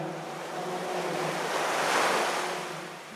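Ocean waves breaking on a shore, a steady hiss of surf that swells to a peak and then recedes, with no voices.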